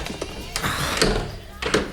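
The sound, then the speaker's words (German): Someone tries the handle of a locked door: a handful of sharp clicks and rattling clunks in uneven bursts, the latch refusing to give over a steady low background hum. “Da ist eine Tür.”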